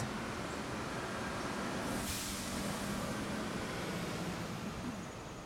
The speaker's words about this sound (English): I invite you to seek permission to come in and forget what you left behind. The sounds, the noises of cars, alarms, people walking. Leave all of that behind